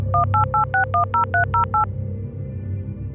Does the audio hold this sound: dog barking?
no